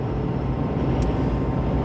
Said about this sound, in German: Und wie ihr vielleicht im Hintergrund hören könnt, ich fahre gerade Auto weil ich mir, eure, weil ich mir Podcasts ja ausschließlich nur beim Autofahren gebe.